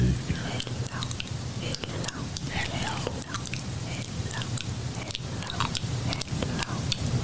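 Wet sucking and chewing on a lollipop, with soft smacking and clicking mouth sounds repeating irregularly, plus faint whispery breaths over a low steady hum.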